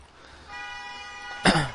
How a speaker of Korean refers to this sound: 아유 뭐 이렇게 빵빵 빵빵대 밖에서